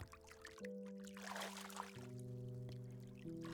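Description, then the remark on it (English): Water splashes and trickles in irregular bursts from kicking legs, moderately loud, over steady sustained musical tones that shift pitch a few times. “Splash, splash. My back legs.”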